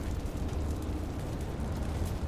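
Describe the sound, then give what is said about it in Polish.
A steady, roaring fire burns with dense crackling and popping over a constant rumbling hiss, holding the same loudness throughout with no voices. “Ogień.”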